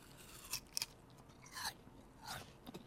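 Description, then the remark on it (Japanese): Crisp crunching of someone biting into and chewing a sweet, juicy pear, with several bursts of crunchy, wet chewing spaced out over a few seconds and no talking. “うんいい音ねほん 甘い甘いしすごいジューシーですねそうですねこの食感がまだシャキシャキでですね、えー、非常にいいしい果汁が多くてちょっとあの食べてすぐ喋ったら出そうでしたもうジューシーすぎて そうですね水分が多い梨品種ですからね”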